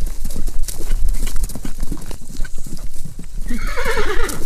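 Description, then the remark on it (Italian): Steady clip-clopping of horse hooves moving at a walking pace, followed near the end by a loud, wavering horse whinny. “Sì, c'entrano i cavalli.”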